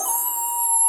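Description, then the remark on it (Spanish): A voice imitates a wolf's howl with one steady, sustained tone, fairly loud for just under a second with no other sounds around it. “¡Ese es un lobo!”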